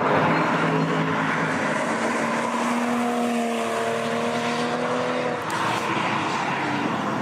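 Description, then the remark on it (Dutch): A Toyota Supra sports car's inline six-cylinder engine runs steadily throughout, a loud, smooth drone with layered harmonic tones that hold and shift slightly in pitch, with a brief dip and recovery near the end. “We hebben wel geluid van de Supra.”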